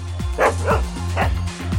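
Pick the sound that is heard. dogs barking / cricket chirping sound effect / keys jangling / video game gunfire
dogs barking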